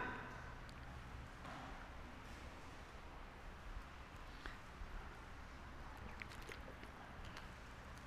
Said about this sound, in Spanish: Me gusta ese sonido de las hojas de las Biblias. Significa que estamos usando nuestra Biblia.